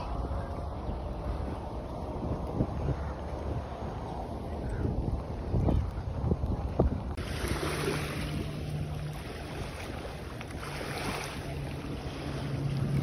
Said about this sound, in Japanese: えこれ見てください。これ、あの、海岸沿いなんですよ。家族連れとかがいますね。えー、航海沿岸に来ました。